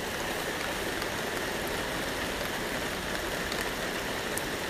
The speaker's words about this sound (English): Oh, terrible, terrible, terrible, terrible. Shouldn't be allowed. I mean fancy it raining at seven o'clock in the morning when it's doggy walk time. I mean, it's just not on. No. I mean, it should be doing all this when we're fast asleep.